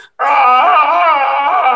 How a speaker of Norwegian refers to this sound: samme hyleskriket som The Emperor gjør i Return of the Jedi.